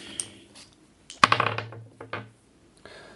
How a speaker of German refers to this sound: So, fangen wir mal an zu würfeln.